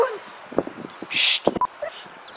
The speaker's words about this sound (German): Ähm, mein Hund bellt.